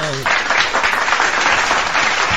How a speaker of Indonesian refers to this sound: Yeay, tepuk tangan dong.